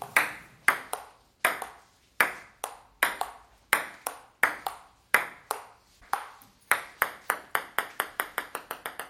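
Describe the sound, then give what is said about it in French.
A ping-pong rally of crisp, clear, evenly spaced ball hits, ending as the ball drops and bounces in quicker and quicker succession on the table. “Vous avez entendu un jeu de ping-pong et à un moment donné, la balle, elle tombe.”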